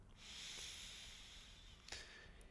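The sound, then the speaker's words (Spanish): A long, airy deep inhalation drawn slowly through the nose during a breathing exercise, a soft steady hiss lasting over a second, quiet, ending with a brief sniff-like catch. “Toma una respiración profunda.”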